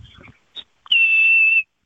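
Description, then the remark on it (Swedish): A person whistles a dog command meaning "right": a short, faint blip, then one long, steady, high-pitched tone held for under a second, flat in pitch and fairly loud, with no talking over it. “för din hund, hur låter höger?”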